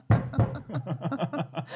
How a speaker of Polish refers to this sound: i będziecie tylko pukać w ręce, no, znowu zacina, nie?